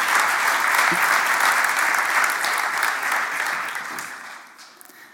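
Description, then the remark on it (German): Sustained audience applause, a dense crackle of many hands clapping, holding steady for several seconds before tapering off at the end. “Vielen Dank, herzlichen Applaus”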